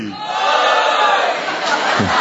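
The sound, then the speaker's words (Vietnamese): A large group of men, the fathers and husbands in an audience, shouts a response together at the speaker's call, a loud, sustained roar of many voices blending into one dense burst that lasts a couple of seconds, with no female voice mixed in. “giờ toàn giọng to nhà canh nói hét to lên tôi lần lần thứ ba là không có một giọng nữ pha vào”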